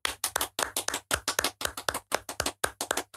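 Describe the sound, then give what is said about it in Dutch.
Two jury members clap together for about three seconds, a quick, steady patter of sharp hand claps that overlap slightly, with no voices. “Ja, dat is de jury die applaudisseert mee.”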